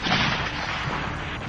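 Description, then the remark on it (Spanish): Gunfire in a battle as a cavalry regiment advances, shots concentrated on attackers charging with swords; a dense, steady barrage of shots blending into a continuous roar that stays loud and unbroken throughout, with no voices. “Los tiros se concentraron en los suicidas con sus espadas.”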